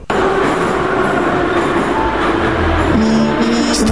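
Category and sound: vehicle, subway train passing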